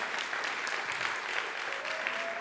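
An audience claps steadily, a dense wash of many hands clapping at once with no pauses, holding an even, moderately loud level for the whole stretch with no voices on top.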